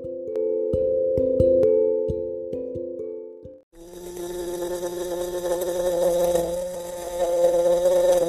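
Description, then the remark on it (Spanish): A bee buzzes in flight, a steady droning hum that stops for a moment, then returns fuller and harsher, holding continuously until the end. No one speaks. “Su amiga abeja que volaba cerca de ahí se dio cuenta de la situación y en sus patas llegó la solución.”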